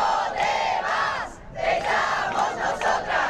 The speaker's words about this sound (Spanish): es el grito de inconformidad y apoyo para Hermoso de decenas de personas que protestan frente a la sede de la Real Federación de Fútbol en Madrid.